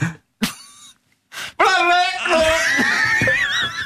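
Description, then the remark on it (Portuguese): A voice imitates a person being hit by a water jet: a few short sputtering gasps, then a long, strained, wavering cry, loud, with no other sounds. “Era o som de uma pessoa que estava a levar com água em cima, vocês não percebem.”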